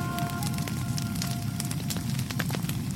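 A steady fire, used to melt down jewelry and gold ornaments, burns with a dense low roar. Scattered sharp crackles and pops snap through it, continuous and fairly loud, with no voices.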